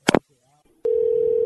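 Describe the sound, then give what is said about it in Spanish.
A sharp click of a phone hanging up on a caller to the Luis Jiménez Show, a Spanish-language call-in show, a brief pause, then a loud, steady dial tone that drones at one mid pitch without a break until the end. “Te voy a colgar.”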